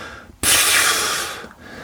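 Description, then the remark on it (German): A long, loud, exaggerated exhale imitating how some people breathe out at length on entering a room: a breathy rush of air that starts abruptly and lasts about a second before trailing off, with no talking. “Also das sind Leute, die kommen zum Beispiel in einen Raum rein und die atmen erstmal so lange aus, so.”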